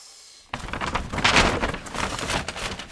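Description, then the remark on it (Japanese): Paper crinkles and rustles as a package is torn open, starting abruptly after a short quiet moment and continuing as a dense, irregular crackling for a few seconds, with no talking. “私は今開封をしますということで我慢したぜ俺も開けたくてしょうがなかったんだ”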